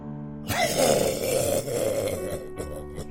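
A man coughs hoarsely and breathes heavily, a rasping, drawn-out sound lasting about two seconds before easing off over a faint low hum.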